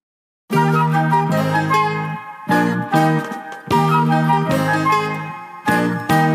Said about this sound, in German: Und die bekommen wir jetzt von einem der populärsten deutschen Liedermacher, der auch das Thema Gesundheit gerne auf die Schippe nimmt.